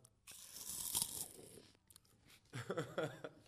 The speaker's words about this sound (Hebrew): אז אה, קח לך חצי דקה, אני אוכל עוד באמב אחד עם רעש בתוך המיקרופון, רגע.